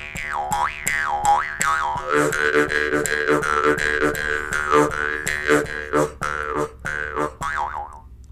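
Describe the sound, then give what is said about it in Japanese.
An Ainu mukkuri mouth harp twangs steadily with a buzzing, wah-like tone that bends up and down, played in quick rhythmic plucks, fairly loud with no voices. “ね、あれですよね、あのポロトの頃のあのムックリのような色”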